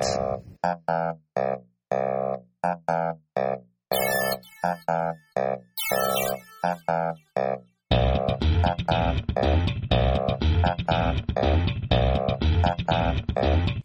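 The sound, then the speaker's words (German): A short electronic jingle made in GarageBand: crisp, staccato synth notes with a few bright sparkly accents, then a fuller, continuous section with a steady beat and bass, loud, with no voices. “Ja, was ihr jetzt gerade gehört habt, ist unser Jingle-Versuch.”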